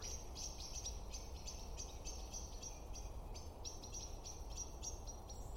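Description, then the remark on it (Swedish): Rapid, repeated high chirps from agitated birds in the trees, calling out at a cat named Flingan, sounding busy over a steady low outdoor rumble, with no one talking. “Men hör du nu, vandra, vad fåglarna blir upprörda här.”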